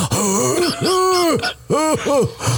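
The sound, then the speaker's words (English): A strained, gasping groan after a harsh swallow of straight Jack Daniels whiskey, rising and falling in a few drawn-out vocal bursts, loud, with raspy throat sounds between them. “That's the sound I make when this shit is the back of my throat.”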